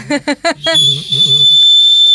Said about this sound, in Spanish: Así bueno, un silbato que, que, puede salvarnos la vida.